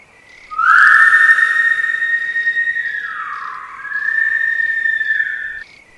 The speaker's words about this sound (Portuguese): Tá ouvindo esse barulho? Parece o assovio da matinta.